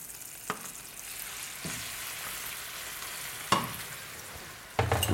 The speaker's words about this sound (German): Das heißt, jetzt kommen die Chime, die Rape, die gekochten kommen jetzt in das Öl. Der Knoblauch sieht super aus. Sieht super aus. Und da kommen die jetzt da mit rein. Zischt, zischt. Das geht ab.